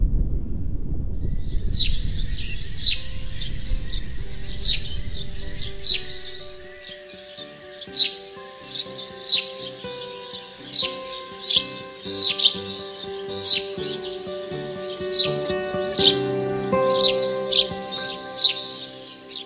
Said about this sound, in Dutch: Het is een, uh, een chilp chilp geluid. ja. De ringmus in de knotwilg.